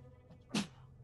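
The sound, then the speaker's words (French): A single short, explosive sneeze bursts out against a quiet, low hum, sharp and over in a fraction of a second with no talking around it. “À tes souhaits, la chose.”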